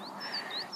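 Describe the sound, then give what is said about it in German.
Faint, high, thin bird calls whistle in the background of a snowy Alpine mountain landscape, several short rising and falling notes overlapping, over a soft, steady outdoor hush with no one speaking. “Und ihr könnt vielleicht ein bisschen die Vögel im Hintergrund hören.”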